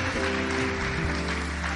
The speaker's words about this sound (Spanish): Dale el aplauso al Rey.